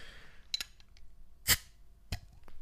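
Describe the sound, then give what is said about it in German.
A few small metallic clicks, then a sharp, brief pssht as a drink is cracked open, the fizz trailing off quickly before one more click. “Und du wirst auch spüren, wie ich jetzt hier ein Getränk aufzische.”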